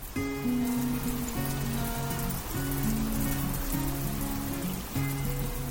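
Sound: rain falling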